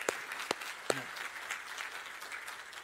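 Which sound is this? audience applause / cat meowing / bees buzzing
audience applause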